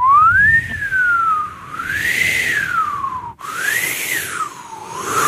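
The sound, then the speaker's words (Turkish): Wind whistling loudly and continuously in Bursa, Turkey, its high tone rising and falling in slow, wavering sweeps, with a brief dip partway through before the gusting whistle surges again. “Islıklı rüzgar hem de öyle mi? Evet ıslıklı rüzgar.”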